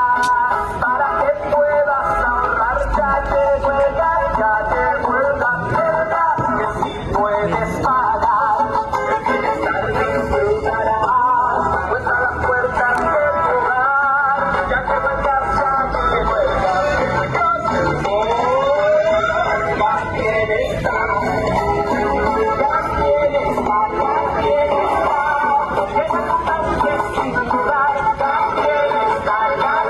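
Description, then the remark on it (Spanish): A gas delivery truck for the Gas Bienestar pilot program blares its cumbia jingle ('Échense el cumbión, gas. Para que no gastes de más') through a tinny loudspeaker. It is a loud, continuous stream of bright, nasal melody and beat that fills the whole stretch without pause. “Por favor, viene, viene, Échense el cumbión, gas. Para que no gastes de más.”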